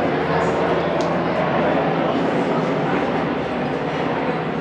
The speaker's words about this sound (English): Well, I'll let the helicopter fly over there a second because I'm not hearing something.